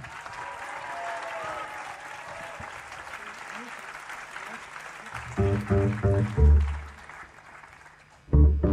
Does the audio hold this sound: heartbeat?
no